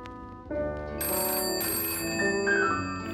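A telephone rings with a bright, sustained electronic tone full of steady harmonics, loud, sounding on its own without any voices.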